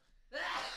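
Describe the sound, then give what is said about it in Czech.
A single sneeze bursts out of near silence, a sudden loud, breathy, hissing blast with a brief voiced edge that holds for about half a second before fading slightly. “Na zdraví”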